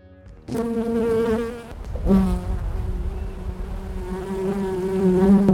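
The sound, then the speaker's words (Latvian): Continuous buzzing of honey bees, a dense droning hum that swells and wavers in pitch, briefly dipping before rising again, with no voices. “Šoreiz dzirdēsiet sarunu par bitēm.”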